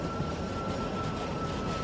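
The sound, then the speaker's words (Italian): A tram rumbles along its rails in Budapest, Hungary, in 1930, a steady, continuous drone with a faint high whine running through it, fairly loud, with no voices. “Lo sferragliere del tram accompagna i suoi pensieri.”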